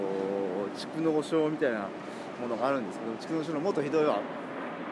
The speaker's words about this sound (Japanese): 後ろでガンガン飛行機の音鳴ってますがねだからね撃ち落としてやりたい